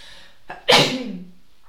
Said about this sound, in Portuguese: Ai, eu vou espirrar, esperem aí. Ai meu Deus, vou espirrar outra vez.